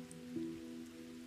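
Light, steady rain falls at night, pattering softly and continuously over a low, sustained hum, quiet and even throughout with no voices.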